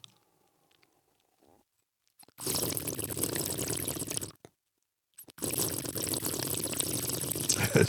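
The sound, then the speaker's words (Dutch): Two long, loud slurps of wine drawn through the lips to taste it, a bubbly, airy sucking sound, separated by a brief pause, with no talking. “Maar die, die, dat slurpen, dat doe je dus omdat die wijn, is, dat, heb, dat heb je net kunnen horen, die is bevrijd uit haar gevangenschap uit de fles.”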